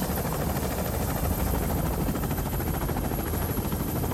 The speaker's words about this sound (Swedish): Helikoptern flyger kring en bergskedja i Provence-alperna nordväst om Nice.